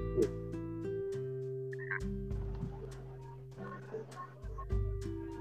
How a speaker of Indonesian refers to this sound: Suara, suara kau berdengung. Coba suara, coba ulang yuk. Suara kau berdengung.